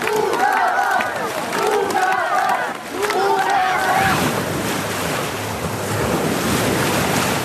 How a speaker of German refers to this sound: Das Krugerbad in Rüttenscheid hat als letztes Essener Freibad die Saison gestern Abend beendet. Um 19 Uhr wurde zum letzten Mal die Wellenmaschine angestellt und da war nochmal richtig gute Stimmung.